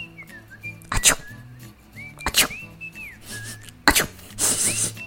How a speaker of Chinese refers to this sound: 哦，教室传来此起彼落的打喷嚏声。